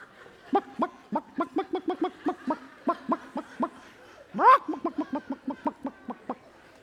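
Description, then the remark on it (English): A person imitates a clucking chicken standing on a heated plate at a carnival: a steady run of about twenty short, throaty clucks, broken midway by one louder, rising squawk before the clucking resumes. “What does that chicken start doing?”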